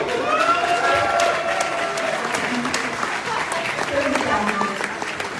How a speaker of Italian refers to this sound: Eccola qua una, fate un applauso.